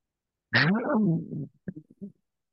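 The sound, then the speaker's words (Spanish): A voice imitates a zombie growl: one long, raspy, falling groan, followed by a few short guttural grunts, with no other sound around it. “¿Se escuchó fue un, fue un sonido de zombie.”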